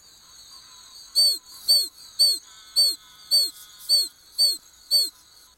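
An oak toad (Anaxyrus quercicus) gives a series of eight high, chick-like peeps at a steady, quick rhythm, each short and clear, set against a faint steady hum of insects in the background.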